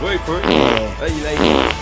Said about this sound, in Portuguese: como é que pode, Raimundo, você peidar na minha frente?